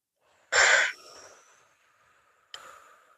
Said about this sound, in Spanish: Con la guata siempre y que la inspiración sea más corta que la exhalación.